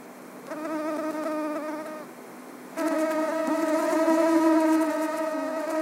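A mosquito's thin, high whine drones steadily in flight, growing louder partway through, with no voices or other sounds.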